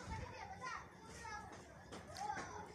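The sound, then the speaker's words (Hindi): Several children chatter and shout near a cow eating fodder, their high, lively voices overlapping in a continuous playful din with no pauses. “कोई सी भी थोड़ी सी आहट होती है गाय देखती है कौन आया बच्चे आ गए एकदम कर रहे हैं तो चलो जाओ इधर से जाओ शोर मचाने आ गए गाय फिर दूध नहीं देती अगर ऐसा होता डिस्टर्बेंस”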